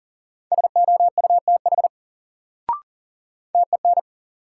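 Rapid Morse code beeps at 40 words per minute in a steady mid-pitched tone, spelling a word in a word drill: a long run of short and long pulses, a brief click, then a shorter burst of dots and dashes.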